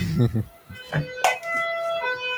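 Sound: ambulance siren passing outside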